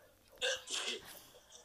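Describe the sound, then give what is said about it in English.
A single sneeze: a sudden sharp burst of breath followed by a short, hissy, breathy release, then quiet. “Bless you.”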